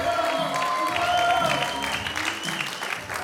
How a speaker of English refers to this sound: Why don't we give God a round of applause? How about that?